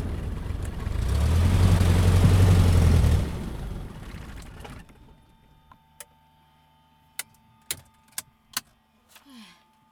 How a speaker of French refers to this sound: atterrissage. L'avion descend d'un coup et mon cœur reste en haut.